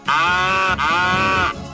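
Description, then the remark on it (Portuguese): A moo-box style cow moo played from the Moobox iPhone app: two sustained, buzzy mooing tones back to back, loud, with no talking over them. “Mas é, é, eu acho fascinante que haja uma aplicação do iPhone que reproduza a vaca de bolso.”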